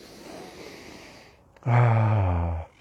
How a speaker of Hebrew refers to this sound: אז הנה, אני רוצה להיות הטריגר הזה, בואו ננשום. זה גם טריגר, נכון? הנה הטריגר, טריגר לנשום, יאללה לנשום.